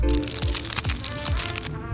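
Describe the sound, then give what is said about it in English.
A freeze-dried ice cream sandwich being unwrapped: a steady run of crisp, crackling crinkles of packaging with a few sharper snaps, fairly loud and continuous for about two seconds. “your freeze dried ice cream sandwich. Okay. So we're going to try it.”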